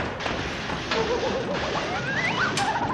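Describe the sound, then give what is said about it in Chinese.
A chaotic flurry of sticks smashing down as a crowd of monkeys swing clubs with all their strength in a beating: several loud whacks land at uneven intervals over a dense, noisy rumble, with shrill whistling squeals rising and falling between the blows. “旁边的其他猴子一拥而上，用尽吃奶的力气挥舞棍棒，一阵猛砸。”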